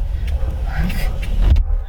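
A car's power window hums closed with a steady motor whir over low cabin rumble, ending in a soft thunk as it seals shut near the end.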